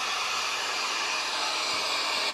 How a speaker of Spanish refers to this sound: Con este ruido blanco te dormirás relajado y sin pensar en nada.